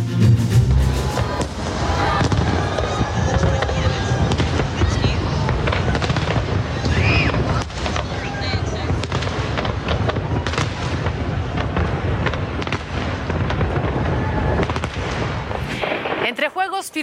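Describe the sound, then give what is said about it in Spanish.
A big fireworks display celebrating the start of the New Year 2023, as in countries such as Australia and New Zealand, bursts continuously, with rapid booms and crackles layered over music and a murmuring crowd, loud and dense throughout before cutting off abruptly at the end. “Técnicos y música, países como Australia y Nueva Zelanda celebraron el inicio de Año Nuevo.”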